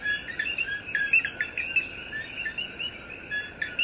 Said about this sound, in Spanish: escuchando este amanecer aquí en el Yunque. vamos a disfrutar el sonido del coquí que fíjense que también está junto con los grillos en este amanecer tan precioso que todos estamos disfrutando.